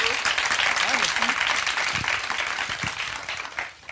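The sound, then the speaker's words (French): A crowd applause sound effect used as an intro: loud, continuous dense clapping with cheering voices and a few whoops rising over it, tapering slightly toward the end. “On gardera cette intro pour tous les, tous les prochains épisodes, les gens croiront qu'on a une foule en délire.”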